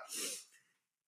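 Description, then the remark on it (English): A small pet named Buddy, lying on a lap, lets out one short, snuffly snoring breath, a soft nasal rasp that fades within a second, with no talking around it. “You remember what Rush Limbaugh said as Buddy's now snoring on my lap?”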